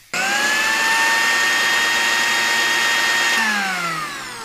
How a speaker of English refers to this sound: I could just put some bananas and some milk in here and make myself a banana smoothie.